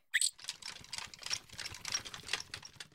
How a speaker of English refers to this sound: When I made that sound, I was running on my hamster wheel. It was awesome.